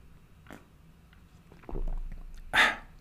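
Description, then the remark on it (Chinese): Someone drinks plain water with a few soft gulping swallows, a low gurgling stretch in the middle, and a sharper, louder gulp near the end. No one speaks. “让我们一起听一听我喝白开水的声音。”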